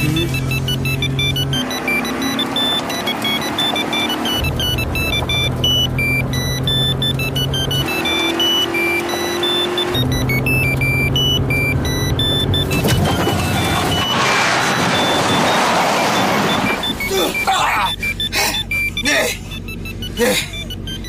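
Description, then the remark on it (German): A phone ringtone plays loudly and is left to ring, a repeating electronic melody in bursts that gives way to a rushing, noisy stretch and a few sharp clicks near the end. “lass einfach klingeln.”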